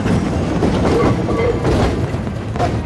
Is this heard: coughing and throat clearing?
no